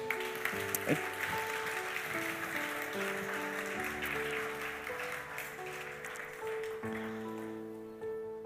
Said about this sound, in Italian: Se è così, alziamoci all'impiedi, Chiesa amata. Diamo un applauso al Signore.